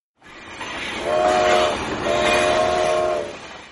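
A train in Mauritania sounds two long, loud horn blasts in a row, with a steady rumble of the moving train running underneath the whole time.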